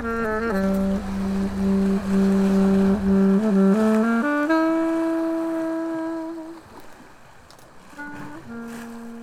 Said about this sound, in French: Ce soir, c'est soirée cargo. Ambiance moteur